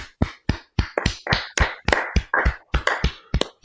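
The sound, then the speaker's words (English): A brief burst of applause for Chiefs long snapper James Winchester's new contract extension: about a dozen sharp, crisp hand claps in a quick, steady rhythm, from just one or a few people, with no talking. “Round of applause for James.”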